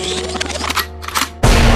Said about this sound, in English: Record means rewind, a gunshot means forward.